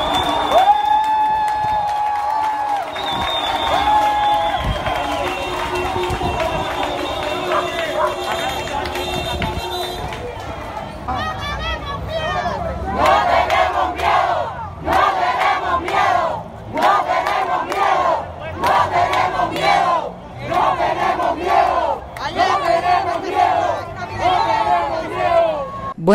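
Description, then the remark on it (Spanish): A large protest crowd in Havana, Cuba, during the demonstrations of 11 July 2021, shouts and chants demands in loud, rhythmic bursts, voices rising together in repeated waves after a stretch of dense, agitated crowd noise. “Acaban de escuchar gritos y reclamos de la población durante las manifestaciones que se llevaron a cabo el 11 de julio de 2021 en La Habana, Cuba y en muchos lugares del país.”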